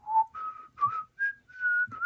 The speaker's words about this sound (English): But, you know, I don't really understand how all that works and I'm not really sure how we hit the right note when we whistle.